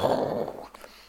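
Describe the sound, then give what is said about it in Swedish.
A person imitates rumbling thunder with a short, low, growling rumble, loudest at the start and trailing off within about a second. “Så tänk er, det regnar och man hör det här mullret, det här ljudet.”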